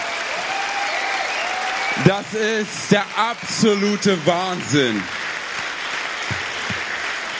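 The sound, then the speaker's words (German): A crowd at the StepCon applauds Andy Sommer and his team steadily throughout, a dense wash of clapping, while a man shouts an excited exclamation over it in the middle. “Hey, und ich fände es ganz gut, wenn wir am Anfang mal ganz kurz Andy Sommer und seinem atemberaubenden Team einen richtig fetten, megamäßigen Applaus geben.”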